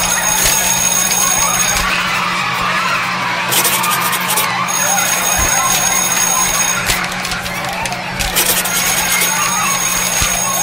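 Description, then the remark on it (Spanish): A dense, loud wash of layered classroom noise: a steady projector fan hum underneath, indistinct chatter and classmates' laughter, and a ringing class-change bell cutting through in bursts, all overlapping continuously. “Como el sonido del lápiz con el que juega tu compañera, el ventilador del proyector, la risa de tus compañeros en el fondo, el timbre de cambio de clase.”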